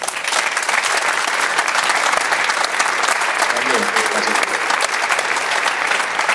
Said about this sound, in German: Grüße und äh, Applaus für Fredi Bobic.